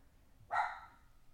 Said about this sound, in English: I don't know if you heard my puppy in the background, but she never barks, and then every once in a while, she'll just bark at something completely random.